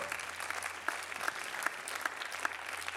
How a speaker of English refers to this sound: Let's give Him a big shout of applause.